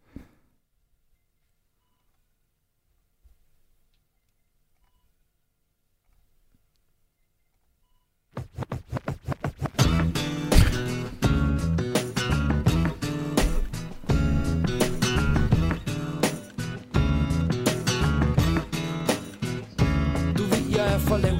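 About eight seconds of near silence, then a Danish hip-hop song starts abruptly and plays loud and close to the end, driven by a steady, punchy beat with heavy bass.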